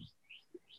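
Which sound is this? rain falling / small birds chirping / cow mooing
small birds chirping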